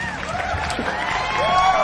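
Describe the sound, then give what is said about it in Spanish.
An applause sound effect: a crowd applauds steadily with a dense patter of clapping, mixed with cheering voices and rising, wavering whistles, holding at a fairly loud, even level throughout. “Y los aplausos, anda a buscarlos, sabes a dónde, ¿no?”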